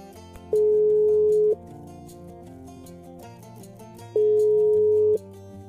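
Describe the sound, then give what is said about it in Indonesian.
A phone ringback tone sounds twice while a call is being placed, each a steady one-second hum separated by a few seconds of quiet, heard over soft background music. “langsung saja kita telepon ya”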